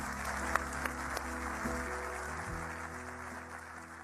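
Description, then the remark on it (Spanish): Steady audience applause, a dense wash of clapping that holds for about four seconds at an even level, with a faint low hum running underneath and no talking. “Otro aplauso, chicos, por favor.”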